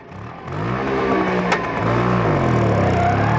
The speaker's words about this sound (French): Une Vespa rouge 125.